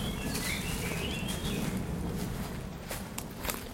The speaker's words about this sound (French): On n'échappe pas aux avions. Hein en région parisienne.